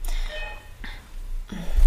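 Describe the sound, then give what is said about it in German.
A doorbell rings with a sustained tonal chime that fades within about a second, followed by a couple of brief breathy rustles over a low background hum. “kurz, es hat an der Tür geklingelt.”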